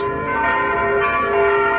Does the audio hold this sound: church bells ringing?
yes